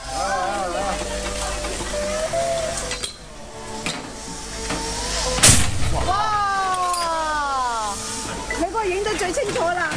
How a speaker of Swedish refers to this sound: Men man snurrar det sådär och sen i något skede så blir det liksom ett sånt tryck på det så att sen liksom poppar alla popcorn på en gång. Uh, och så låter det liksom ett, ett riktigt, alltså en otrolig smäll.